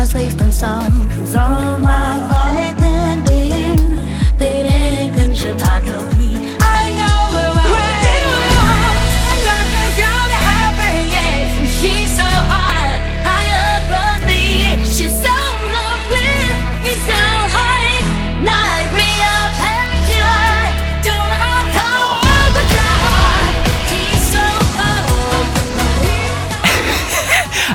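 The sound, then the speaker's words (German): Loud, dense rock music, an AI-generated continuation of a rock song, plays throughout. After a short opening matching how the original begins, it shifts into a heavier, muddled section with pounding bass and clashing layers, like two songs colliding. “ich habe das Gefühl, ich war auf einem Festival zwischen zwei Bühnen”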